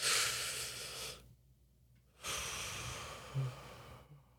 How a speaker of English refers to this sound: like just noticing the breath mm-hmm. and how it fills your lungs. We call that a grounding technique mm. where instead of like responding to the environment, you notice your body just for a little bit.